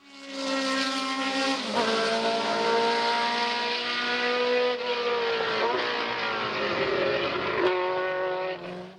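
A loud Ford Cosworth DFV racing engine howls continuously, its pitch dipping and climbing again about three times as the revs change, with no voices present.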